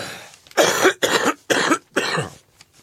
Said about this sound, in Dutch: Pardon, ik moet even hoesten. Hebt u een momentje?